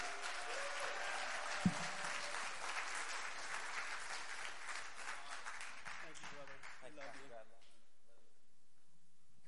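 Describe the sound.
A church audience applauds steadily to welcome a guest speaker in the morning, a dense wash of many hands clapping at once. The applause thins out after several seconds as a voice begins speaking over the fading claps.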